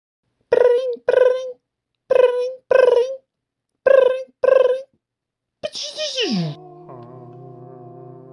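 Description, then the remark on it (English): An incoming-call ring: three pairs of bright, buzzy electronic tones in a steady double-ring rhythm, then a swooping downward tone that settles into a low, sustained electronic hum. “Um, and and he should be calling us any any second now. I There he is. Hold on.”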